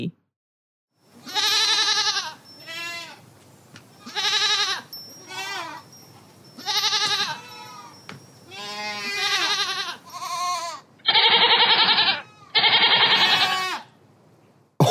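A goat bleats loudly, about ten wavering, nasal calls in a row with short pauses between them, the last few harsher and more strained. No one speaks.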